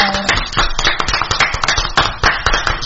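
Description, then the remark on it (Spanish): A burst of applause with many hands clapping in a dense, irregular patter, loud and steady for a few seconds, with faint voices mixed in. “Bueno, eh, un aplauso y un perdón a los mensajes del Facebook Live.”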